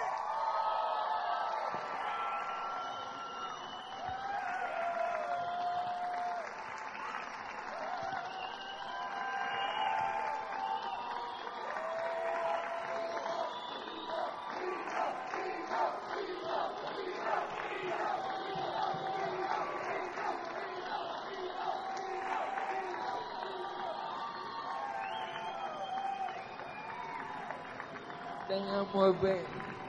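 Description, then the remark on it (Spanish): A large audience at a concert in Puerto Rico applauds and cheers without pause for about thirty seconds for a performer back on stage after about a year and a half, a dense, steady roar of clapping mixed with shouting voices, holding at a fairly even loudness throughout. “Un aplauso para él.”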